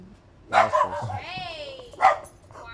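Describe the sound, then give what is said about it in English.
A big dog barks twice, two loud, rough barks about a second and a half apart, with a brief high whine sliding downward in between. “This dog over here is big.”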